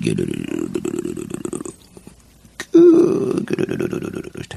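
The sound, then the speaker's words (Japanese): A voice imitates a hungry stomach's growl with a long, rolling trill that rises into a loud, sustained gurgle, with talking before and after it. “お腹が空いた時になるお腹の音で目が覚めた。”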